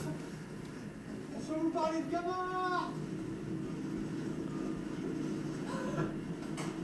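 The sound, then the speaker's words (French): The hulls of a racing trimaran rush and splash through the water at high speed, live on its way down the Bay of Biscay around the Azores, making a steady, loud roar, with a brief rising whistle-like whine partway through and faint muffled voices underneath. “à ces vitesses-là, t'es, toujours mouillé parce que les traves qui font l'eau, ça, ça fait des éclaboussures.”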